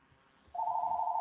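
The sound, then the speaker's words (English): A mobile phone rings with an incoming call: a steady, high electronic tone that starts midway through and holds loud until the end, with no one talking over it. “I don't get it. I can't even turn off my Call phone.”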